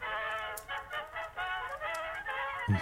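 A broken gramophone blares a loud, nasal, distorted racket: continuous squawking, honk-like tones that waver and pulse for a few seconds, harsh, with no one talking.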